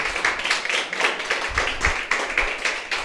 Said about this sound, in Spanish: Alaba al Señor con tus palmas en esta noche.